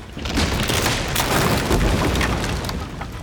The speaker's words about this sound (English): They were just in time. In an instant, the bridge collapsed behind the twins. Shibalanke gasped as she watched it tumble into the putrid river below.